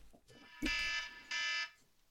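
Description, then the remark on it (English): Two loud, harsh electronic alarm blasts, each lasting under a second with a short gap between, buzzing with dense harmonics; an alarm set in case of falling asleep while sunbathing. “I'd been in the garden sunbathing, and I set my alarm in case oh. I fell asleep”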